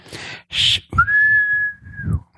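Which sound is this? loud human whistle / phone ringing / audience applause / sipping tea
loud human whistle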